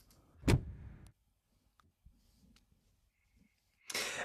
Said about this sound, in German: Da sind ja mehrere Türen gleichzeitig.